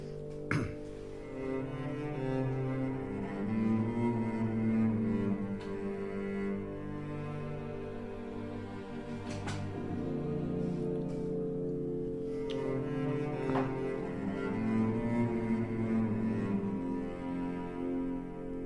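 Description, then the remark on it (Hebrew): Sustained orchestral music depicting the arrival of the wizard Väinämöinen, with a warm, low cello melody, the motif later used for Game of Thrones, carried over layered strings, steady and fairly loud throughout, with a few sharp accents punctuating the phrases. No one speaks. “המוטיב הזה של הצ'לו הוא יפהפה, וזה המוטיב שלקחו למשחקי הכס.”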